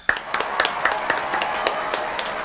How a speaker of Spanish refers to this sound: Eso, otros aplausos virtuales por ahí.